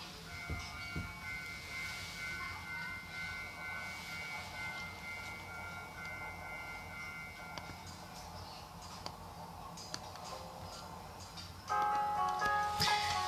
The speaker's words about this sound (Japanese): さっきちょっと踏切の音がしましたけど、この踏切はですね、音はですね、平成の鬼越と八幡の間にある、というか鬼越に一番近いですね、踏切の音でした。